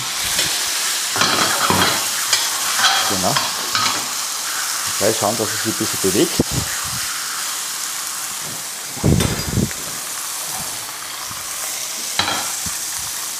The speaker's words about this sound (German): So, unsere Pfanne ist heiß. Das ist jetzt wichtig, dass unsere Pfanne wirklich schön heiß ist beim Rostbraten, wenn man den einlegt. Mit der Senfseite nach unten mhm. in die heiße Pfanne rein.